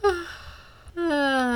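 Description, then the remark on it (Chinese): A voice imitates a big yawn as a character stretches: a short breathy gasp with a falling pitch, a brief pause, then a long, loud voiced stretch whose pitch slowly rises as it drags out. “阿光伸了个懒腰，打了个大大的哈欠。”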